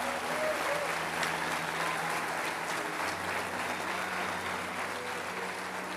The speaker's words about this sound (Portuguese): Dê uma salva de palmas a Ele, aleluia!